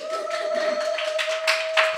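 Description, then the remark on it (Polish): A steady wash of applause welcoming guests, many hands clapping in dense overlapping bursts for two seconds, with a faint constant tone humming underneath and no one speaking. “Wielkie brawa, wielkie brawa.”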